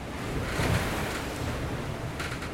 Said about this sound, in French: le bateau avance beaucoup trop vite. Et les vagues de derrière, en plus, euh, vont m'empêcher d'ouvrir le capot pour mieux le refermer sinon je vais, je vais laisser rentrer euh, toute l'eau des vagues dans le bateau.